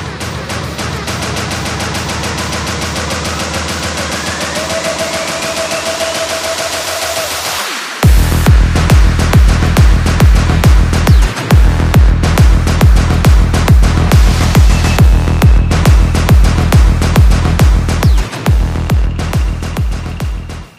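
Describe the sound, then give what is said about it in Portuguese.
Electronic dance music, loud: a rising synth build-up with a sweeping riser for several seconds, then a hard drop into pounding, steady kick drums and driving synths. No voices. “uma música de eletrônico é, chamada …, do …, que vocês vão ouvir uma parte agora”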